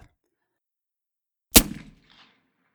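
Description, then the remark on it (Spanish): A single sharp, loud report from a real pistol fired with a suppressor, a sudden crack with a short rumbling decay, then a faint mechanical clink before silence returns. “Ahora vamos a escuchar cómo suena una pistola con un silenciador o un supresor en la realidad.”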